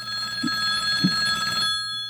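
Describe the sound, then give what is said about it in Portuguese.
A telephone on the Energia radio call-in show rings for an incoming listener's call with a steady electronic trill, bright sustained tones buzzing for about a second and a half before cutting off, clear, with no one talking. “Vamos pro telefone. Ouvinte chegando.”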